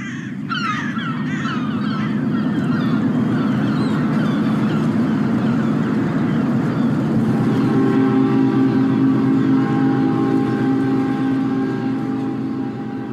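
Harbor ambience with boats at the Port of Hamburg, Germany's largest port: a steady low rumble of engines and water, crows cawing repeatedly early on, then a sustained droning ship horn-like tone joining in the second half. No talking.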